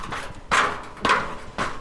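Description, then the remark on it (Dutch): Three heavy footsteps thud in a slow, steady rhythm, fairly loud, as three people climb a hollow-sounding temporary construction staircase up to the roof of a bicycle parking facility; no one speaks. “Dit is zo'n stijgetrap. We lopen er ook met z'n drieën op, dus ik weet niet of dat, dat het houdt.”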